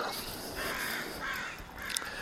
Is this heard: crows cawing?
yes